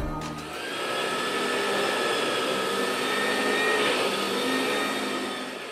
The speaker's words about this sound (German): Das hier, das ist mein Staubsauger. Das ist schon ziemlich alt und funktioniert noch ganz gut. Allerdings beim Kabel schaut etwas heraus, was nicht herausschauen sollte.